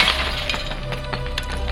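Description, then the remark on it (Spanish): A glass patio door shatters loudly, a dense crash of breaking panes followed by scattered tinkling shards that keep falling for a couple of seconds, with no voices. “Las puertas del patio, hechas completamente de vidrio, le proporcionaron la entrada perfecta.”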